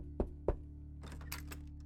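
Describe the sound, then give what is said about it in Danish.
Two heavy knocks by armed police on a front door in Denmark, close together, followed by faint rustling over a steady low hum. “Flere tusinde danskere med de her belastende registreringer oplever, at der ud af det blå bliver banket på deres døre.”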